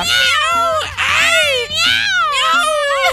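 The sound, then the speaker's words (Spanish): A person loudly imitates a cat's yowling meows, several drawn-out wavering cries in quick succession, strained, like a cat fight acted out by voice. “¡Miau! ¡Ay! ¡Miau!”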